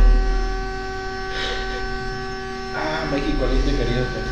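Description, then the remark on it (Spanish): A passing car's horn, stuck on, blares one steady, unbroken tone for the whole stretch with a buzzy, harmonic edge, while brief voices murmur underneath. “¿Hubo partido de fútbol o algo No, como que se le quedó pegado el claxon.”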